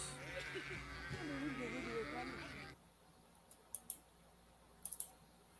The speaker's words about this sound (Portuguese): As pessoas fizeram a tentativa ali de chamar as ovelhas e as ovelhas nem deram bola. Mas o pastor delas chamou e elas prontamente atenderam.